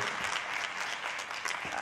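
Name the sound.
audience applause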